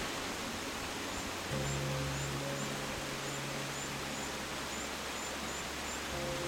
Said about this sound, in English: So now we're just walking across our first beautiful bridge over the waterfall. So you can hear the, the tinkling, gushing sounds of the waterfall in the background.